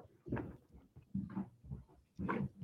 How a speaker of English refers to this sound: not sure if you can hear that craziness going on above me or not is that the dog oh yeah yeah she got a bath so she's got the zoomies right now